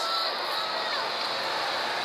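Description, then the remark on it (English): A baseball crowd at the Metrodome cheers Chili Davis's two-run home run in a dense, steady roar that stays loud for the full two seconds, with no clear individual voices standing out. “Oh, this crowd going bananas.”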